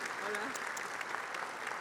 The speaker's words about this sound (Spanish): Por favor, un aplauso.